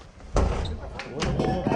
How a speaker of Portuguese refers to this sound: Os policiais cercaram todas as entradas da casa que fica nesta esquina na zona sul de São Paulo. Os investigadores quebraram o cadeado e depois arrombaram a porta.